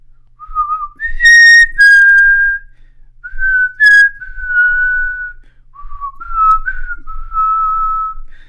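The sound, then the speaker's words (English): A person whistles a short part of a piano piece's melody, a series of sustained and gliding notes with brief pauses between phrases, clear and fairly loud with no talking. “And it's it's a piece of piano music, and I'm gonna whistle just the, like a little bit and see if anybody.”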